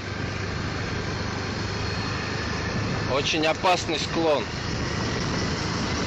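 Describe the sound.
A motorbike engine drones steadily throughout with a low rumbling hum as the rider rides with no hands, while a man briefly speaks over it midway.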